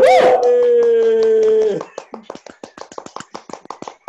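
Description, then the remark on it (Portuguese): A long, held vocal cry rings out first, then gives way to quick, steady hand clapping as applause for coach Jair Ventura, about nine claps per second, bright and sharp, continuing for a couple of seconds. “A salva de palmas!”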